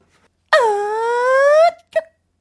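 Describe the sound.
A voice imitates an alien signal with one long, sustained wailing tone that dips and then slowly rises in pitch over about a second, followed by a short chirp.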